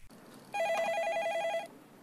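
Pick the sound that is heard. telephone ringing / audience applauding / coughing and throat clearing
telephone ringing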